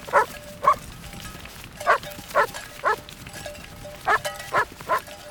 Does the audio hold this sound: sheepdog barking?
yes